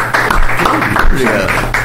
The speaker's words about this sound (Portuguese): Podemos aplaudir aí, por favor, para dar uma.